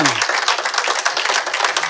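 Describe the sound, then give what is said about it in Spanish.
A church audience bursts into dense, sustained applause given to the King in the name of Jesus, a loud steady wash of many hands clapping at once with a brief low voice or tone at the very start. “Dele un aplauso al Rey.”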